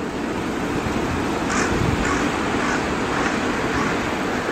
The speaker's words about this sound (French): Là, des corbeaux